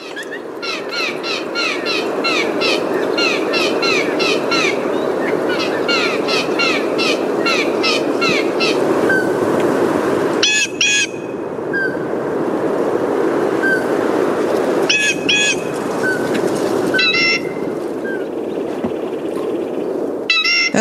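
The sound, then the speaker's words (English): A bird gives its creaky, rhythmic "pump handle" call, repeated in quick bursts and phrases over a steady, noisy outdoor background, with other chirps scattered between, played from a bird CD. “called the pump handle sound they do.”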